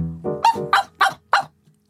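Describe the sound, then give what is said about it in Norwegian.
A dog barks four times in a steady rhythm, each bark short and fairly loud, with no talking over it. “Fire bjeff, det er ja.”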